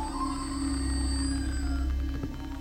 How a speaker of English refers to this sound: Yeah, you got that that witch lamp, Oh yeah. with the sound effects. There's a little button you gotta press. Oh, you hear that?